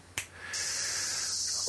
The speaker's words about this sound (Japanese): やっぱ一番は神社富岡八幡宮、うん、でいい場所見つけて、まあ、木がたくさん生えてるところがあってであんまり人が来ないとこがあるからそこにマイクを持って行って録音したんだけれどもその音声がこちらなんですけども